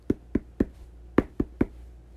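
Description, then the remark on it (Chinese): Six sharp knocks on a door in two groups of three, each a dull, solid thud with a quick, even rhythm and a short pause between the sets. No voices. “诶在一个寒冷的冬天呐，有一家人呢围在暖炉旁边工作，突然啊，有人来敲门了。”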